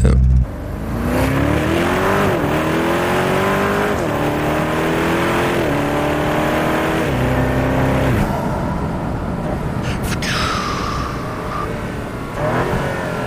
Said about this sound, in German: Ah, oh, jetzt hört er sich ganz anders an. Ja, Doppelkupplung. okay, den hat äh, Doppelkupplung. V8 ja. mit Turbos, mit Turbolader.